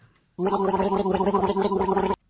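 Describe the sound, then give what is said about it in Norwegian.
A person gargles loudly and steadily for nearly two seconds, a bubbly, throaty rattle with a voiced hum, mimicking a new random theme-generator machine whirring away as it produces a theme. It starts and stops abruptly, with no talk. “Uh, så den gurgler opp et tema for oss.”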